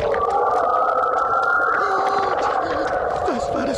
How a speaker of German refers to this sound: für ein schauriges Heulen. Lupo stehen sämtliche Haare zu Berge. Ach, Lupo, bleib tapfer. Das war doch bloß der Wind.